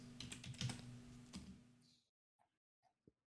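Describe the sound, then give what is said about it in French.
Rapid clicking of computer keys as someone types in payment card details, a dense burst of keystrokes for about two seconds followed by a few isolated taps, fairly quiet. “Je suis vraiment en train de mettre ma carte et tout.”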